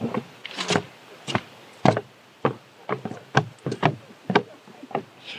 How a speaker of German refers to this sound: Wo wir drauflaufen, man hört es vielleicht auch so ein bisschen, ist ein Holzsteg.